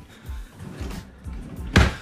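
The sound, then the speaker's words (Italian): The usual second drawer on the right slides open with a few low rumbling scrapes, then ends in a sharp, loud knock as it stops, with no voices. “Solito secondo cassetto sulla destra, sempre lì come sempre stata.”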